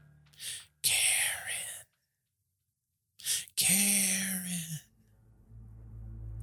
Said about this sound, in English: She would lay in her bed and hear her name stretched out in a ghostly whisper